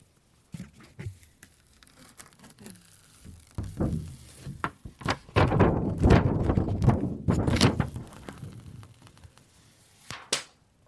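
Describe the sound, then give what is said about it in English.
A screen protector is peeled off a tablet right beside the mic: loud, crackly tearing and crinkling that builds in irregular bursts, then a sharp knock near the end as it hits against the microphone. “Yeah, there was one point where I hit it against the microphone.”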